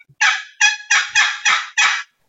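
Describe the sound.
A turkey box call, a friction call, yelps six times in a steady, evenly spaced series, each note loud and raspy, with no voices over it.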